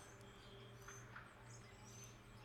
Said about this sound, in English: And birds.